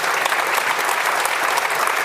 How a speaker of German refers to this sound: Applaus.